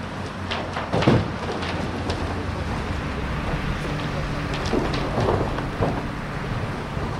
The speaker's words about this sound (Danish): Det er lyden af opgravet mink, der bliver læsset med en gravko op i en tom lastvogn. Den lastvogn skal fyldes, derefter forsejles i toppen, og så skal den køre afsted til forbrændingsanlægget i Kolding.